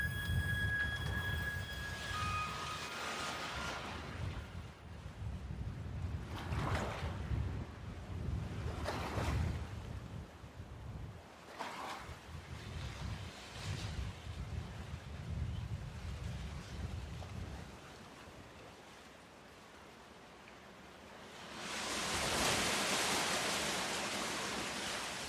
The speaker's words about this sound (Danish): Åh, hvis der bare var en stærk vind, så kunne jeg sejle lige hen, derhen, hvor jeg ønskede. Og himlens gamle moder beordrede straks vinden til at blæse og så fortsatte hun sin færd.